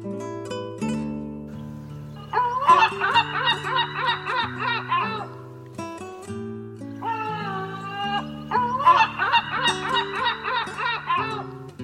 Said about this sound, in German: Das war die Mittelmeermöwe.